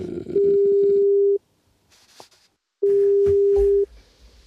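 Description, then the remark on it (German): A steady electronic phone tone sounds twice as a call is placed to a mobile phone, each beep about a second long with a pause between, like a call tone over a phone line, with faint background noise. “Der Einfachheit halber würde ich sagen, ich äh, rufe ganz kurz mal auf dem Handy an. So ganz oldschool Telefon.”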